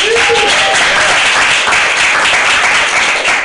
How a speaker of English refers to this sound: Uh, so, round of applause for the great show that you're about to see.